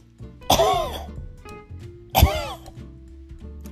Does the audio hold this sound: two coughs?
yes